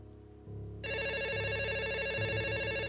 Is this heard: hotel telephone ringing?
yes